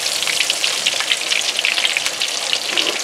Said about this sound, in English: frying food is one of those great techniques because it actually talks to you. Uh -huh. You can start to hear when things are getting done on a side just by the sound.